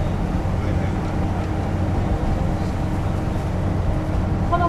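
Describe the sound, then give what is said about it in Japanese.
A diesel railcar runs slowly toward Mount Aso in Japan, filling the cabin with a loud, continuous low engine rumble and drone that holds at the same level throughout. “列車はただいま阿蘇の河口線を抜けゆっくりと阿蘇岳の方に向かって走行しております”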